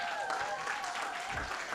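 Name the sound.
group applause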